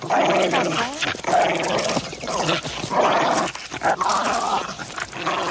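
A dog growls and barks continuously for several seconds, loud, with rough snarling tones broken by sharper yelps and short pauses.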